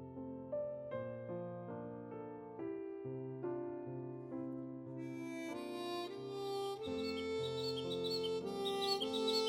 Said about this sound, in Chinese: 我先是被鸟的鸣声吵醒的，是个夏日的清晨，大概有几十只小鸟在我窗外的漆树上集合了。除了麻雀的叽喳声之外，还有那种小绿鸟的嘤嘤声。